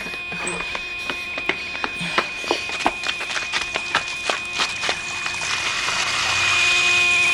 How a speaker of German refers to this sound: Sie ist gegen einen Hydranten gefahren. Das Wasser löscht das Feuer.